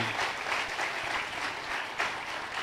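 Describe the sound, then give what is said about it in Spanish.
An audience applauds the Lord of Glory with dense, steady clapping that holds fairly loud and even across the whole stretch, a continuous crackling wash of many hands with no voices standing out. “Que alguien aplaude al Señor de la Gloria.”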